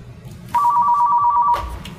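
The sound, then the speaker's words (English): A telephone rings once for an incoming call, a steady electronic tone lasting about a second, loud over faint background noise, with no one speaking. “Oh my gosh, we've got a phone call. Hang on.”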